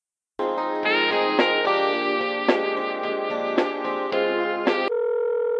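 A telephone line plays a run of steady electronic tones during a call transfer, shifting pitch every half second or so, ending on one sustained buzzy tone, with no voices present.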